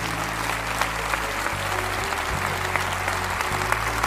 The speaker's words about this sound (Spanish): usted no baje esos aplausos hasta que todos los que tienen que venir hoy vengan.